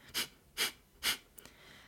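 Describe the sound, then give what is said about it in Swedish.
Three sharp, forceful exhalations through the nose, actively pushed out from the belly during a breathing exercise, come in a steady, quick rhythm, fairly loud, followed by a brief quiet pause with no talking. “men se om du bara kan lägga fokus på magen, andas in, fyll upp magen och andas ut, pressa ut aktivt genom näsan.”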